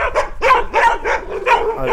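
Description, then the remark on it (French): Four dogs bark in quick, overlapping bursts, loud, with some higher yips mixed in, roughly four or five barks packed into two seconds, as they run around a large wire-fenced enclosure. “alors là, donc, en fait, il y a les quatre chiens qui courent autour de.”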